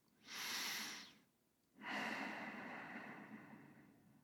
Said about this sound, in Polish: to oddychasz właśnie w ten sposób, że wydech jest dłuższy.